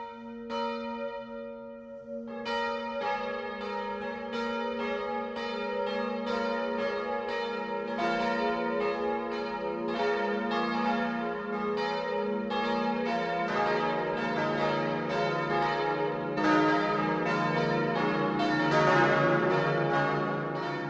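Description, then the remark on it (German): Church bells of Redwitz an der Rodach, in the Lichtenfels district of Upper Franconia, ringing at noon, a full peal of overlapping metallic strikes that swells from a single ringing tone into dense, continuous clanging with rich shimmering overtones, steady and loud throughout, no voices. “Das Mittagsläuten kommt heute aus Redwitz an der Rodach.”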